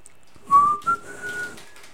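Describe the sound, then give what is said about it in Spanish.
A person whistles a short tune, a few clear notes stepping upward in pitch over about a second and a half, with no talking over it. “¿Cómo va el chiflidito, …?”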